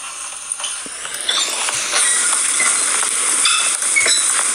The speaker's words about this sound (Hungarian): Hát nem olyan kellemes, mint amire én számítottam. Ez kérlek alássan a fülemüle padló. Padló? Igen. Zenélő padló. zenélő, zenélő padló, illetve hát annyira nem zenél szépen,